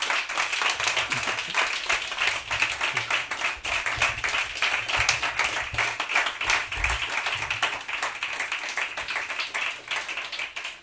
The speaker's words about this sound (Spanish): pero lo que no vamos, eh, lo que no tenéis que esperar es para recibir este aplauso por este proyecto tan maravilloso. Muchísimas Gracias.